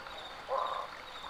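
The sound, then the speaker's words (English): A single short, hoarse bark from a barking frog (Craugastor augusti) rises out of a steady outdoor hiss at night by a riverside parking lot at Lost Maples, sounding like a distant dog's woof, then fades back into the background noise. “They are the hoarse and resonant calls of barking frogs, Craugastor augusti.”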